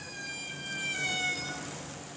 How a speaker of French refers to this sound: Là, on va voir la baleine qui va jouer cette note qui va partir des aigus et descendre.